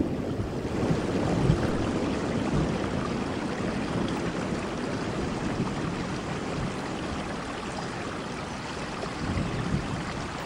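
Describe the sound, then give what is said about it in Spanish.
Torrential rain pours down during a thunderstorm with thunder and lightning, in a dense, unbroken roar that holds steady at a fairly loud level for the whole stretch, with no voices. “para que la audiencia, los que no están acá cerca, se den cuenta que con truenos, rayos y centellas está lloviendo.”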